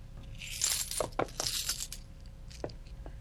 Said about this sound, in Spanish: Mm, creo que están más seguras bajo la cama. Y guardó las monedas bajo la cama.